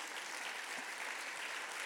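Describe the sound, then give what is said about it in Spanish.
An audience claps for Jesus together in a steady, dense wash of applause that holds at an even level for the whole couple of seconds, with no voices rising above it. “Alguien déle un aplauso a Jesús.”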